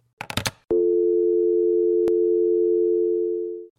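A handset clatters down with a few quick knocks, then a steady electronic telephone tone drones on for about three seconds, loud, with one faint click midway.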